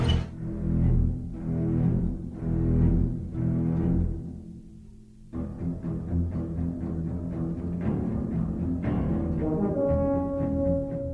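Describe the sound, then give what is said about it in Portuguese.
Ominous orchestral theme music from the 1975 Steven Spielberg film Jaws, with deep, slow swelling low notes that pulse in a steady rhythm, then build into a fuller, tense passage with brass and strings, loud with no talking. “Tu, tu, tu, É, a musiquinha.”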